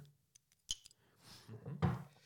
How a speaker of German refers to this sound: Das ist ja das Wichtigste bei der Creme Brûlée. Du musst ja jetzt klopfen können.